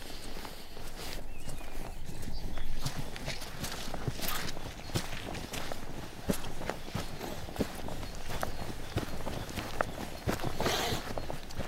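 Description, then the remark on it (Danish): Horses' hooves plod steadily over ground in an irregular walking rhythm, several horses of a herd moving at once, against a constant outdoor background hiss. “Så det, der, det synes jeg er meget interessant, at, øh, at den der sociale flokstruktur, den er så stærk, at, øh, at det kan da godt være, at de, øh, at de skrænder lidt, de to heste der, men resten af flokken har altså ikke opgivet dem endnu.”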